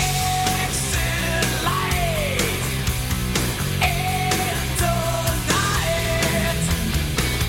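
A heavy metal song plays loudly and continuously, with steady pounding drum hits, thick distorted guitar chords and bending, wailing lead lines sliding over the top.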